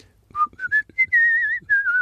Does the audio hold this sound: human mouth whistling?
yes